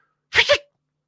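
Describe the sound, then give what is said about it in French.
A voice makes a short, breathy two-part imitation of the whistle people make to call dogs, which dogs hear as ultrasound, fairly loud, about half a second long with a faint tonal trail at the end. “Puis là, … a fait euh, le petit euh, sifflement qu'on fait aux chiens pour euh, sais, les chiens qui entendent des ultrasons.”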